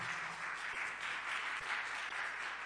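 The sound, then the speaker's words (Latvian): Sustained applause from an audience greeting their 'video brother', a dense, steady wash of many hands clapping at even loudness throughout, with no one talking over it. “Tā kā sveiksim ar aplausiem mūsu video brāli.”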